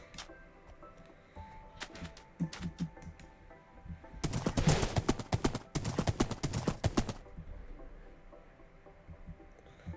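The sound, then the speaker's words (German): Rapid horse hooves clip-clop in a dense burst for a few seconds, with scattered sharp hoof knocks before it, loud over a low background hum. “Oh Pferd, ich bin enttäuscht, ne?”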